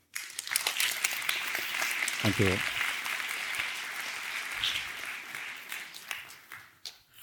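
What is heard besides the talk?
audience applause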